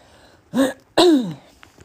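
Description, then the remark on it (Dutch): Two close, voiced coughs in quick succession, a short one followed by a longer, harsher one that trails off, with no talking around them. “nou, sorry voor mijn eh, hoesten heel de tijd tussendoor.”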